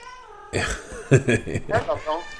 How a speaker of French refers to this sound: mais du coup, là, je suis confiné avec six chats. Mais mine de rien, c'est des êtres vivants. Et voilà, donc lui, il arrive pour brailler ici, évidemment.